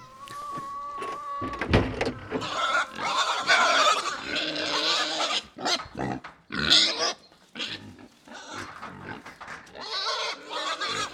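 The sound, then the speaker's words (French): Pigs grunt and squeal continuously in a crowded pigsty pen, several animals, with overlapping noisy calls and brief sharp bursts throughout, no speech. “Alors il nous prend chacun par la peau du dos, il nous emmène dans le tête à cochon.”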